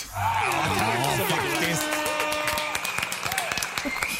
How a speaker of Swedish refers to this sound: Vi har gjort 43 avsnitt alltså. I år. I år. Mm. 43 avsnitt på ett år. Ja. En liten applåd och en tuta på det!